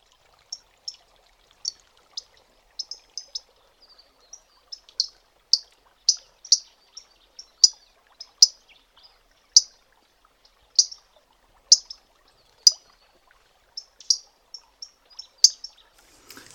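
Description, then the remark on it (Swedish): Aquatic warbler call notes, one of two call-note types: a long, irregular series of short, hard, metallic, high-pitched ticks, some coming in quick pairs or triplets, others spaced out, with no voices present. “Eh, jag har två olika locklätestyper utav, ifrån starrsångare som jag tänkte skulle oh, lyssna på.”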